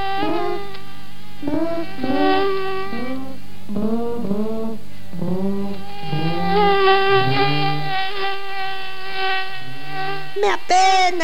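A whiny mosquito buzz drones on steadily as it flies in a room, its pitch wavering and sliding up and down as if circling, with a brief louder burst near the end.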